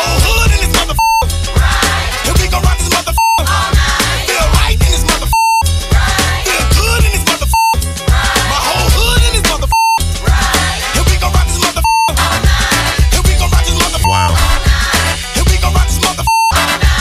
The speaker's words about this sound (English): Yeah, we had to bleep this, by the way.